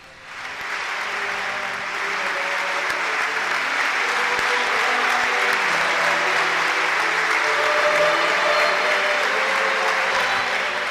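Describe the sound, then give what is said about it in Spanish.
Loud, steady applause from all the attendees at a bishop's ordination in the Diocese of Getafe as the new auxiliary bishop, with mitre and crozier, takes his seat; it swells up within the first second and keeps going without a break, a dense wash of clapping with faint joyful singing underneath. “Y al sentarse, pues con Mitra y con el báculo ha recibido este gran aplauso de todos los asistentes y este, este canto de alegría.”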